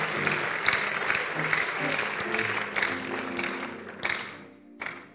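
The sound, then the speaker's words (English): A crowd claps steadily, a dense wash of overlapping hand claps with occasional louder individual claps, tapering briefly near the end before a final burst. “You don't clap be there, but if you are clapping, then you are also clapping so that we know that you are clapping well.”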